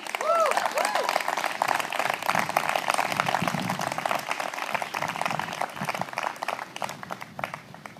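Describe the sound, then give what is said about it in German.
An audience applauds steadily for about eight seconds, a dense, even wash of many hands clapping, with a couple of short whistles near the start and faint crowd voices mixed in. “Lass uns mal Gott dafür einen Applaus geben.”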